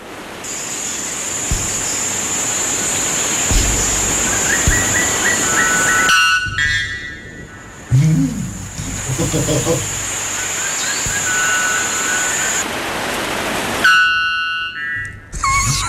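Loud, ringing calls of the world's loudest bird, which reaches 125 decibels, burst out a few times, harsh and horn-like with a metallic edge, cutting through a constant roar of rushing background noise in an outdoor recording.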